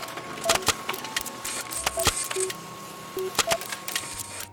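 A printer printing out a story: irregular sharp mechanical clicks and clacks mixed with brief whirring bursts and a few short mid-pitched mechanical tones, with no one talking.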